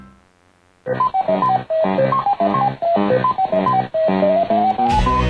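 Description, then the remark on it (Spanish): A retro coin-operated arcade maze game jingle, from a game of eating dots while fleeing colored ghosts through a maze: a loud, bright 8-bit melody of quick, stepped beeping notes that plays alone for several seconds after a brief quiet start, ending in a short noisy burst. “para los que se gastaron todas sus monedas comiendo puntos mientras recorrían un laberinto huyendo de fantasmas de colores”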